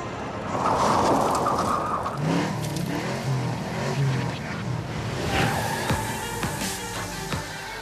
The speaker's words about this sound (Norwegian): det her kunne vært lyd fra hvilket som helst bilspill, egentlig, men det er lyd fra The Crew, som ble sluppet på tirsdag på Windows, PlayStation 4, Xbox One og Xbox 360.